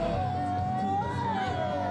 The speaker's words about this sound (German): Ja, das Narrenvolk jubelt und hat sich ordentlich herausgeputzt.